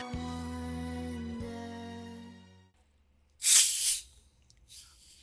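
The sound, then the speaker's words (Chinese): A cola can is cracked open during the quarantine period with a loud, sharp fizzing hiss lasting about half a second, then a fainter fizz. Sustained musical tones play beforehand and fade into a short silence. “此处响起了无声的掌声，因为这是一开一个珍贵的隔离时期的可乐的声音，然后用这个声音来作为霍乱时期的播客的开头。”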